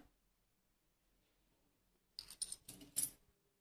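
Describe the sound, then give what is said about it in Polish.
After a quiet stretch, Austrian shilling coins of 900 fineness clink and rattle together in a short burst of bright, jangling handling noise, fairly loud. “Jedna moneta, druga, bardzo w, fajnej, w fajnych stanach są te monety.”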